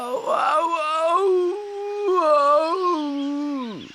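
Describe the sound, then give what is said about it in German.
A human voice imitates a jaguar's pained howl: one long, loud, wavering cry lasting several seconds that rises, holds, and finally swoops down and breaks off, with no speech. “jaulte der Jaguar und zog die Schnauze weg.”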